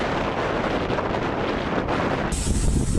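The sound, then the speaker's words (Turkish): Loud, roaring storm wind buffets the microphone in continuous rumbling gusts, blowing away a trash bin, swelling stronger near the end with a harsher, whistling edge. No one speaks. “Aha çöp kovası gidiyor arkadaşlar rüzgarda.”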